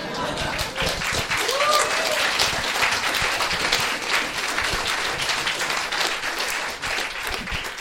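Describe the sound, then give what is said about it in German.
An audience applauds steadily for about eight seconds, a dense, loud wash of many hands clapping at an even level, with a faint voice briefly audible early on. “Kleiner Applaus für Herrn!”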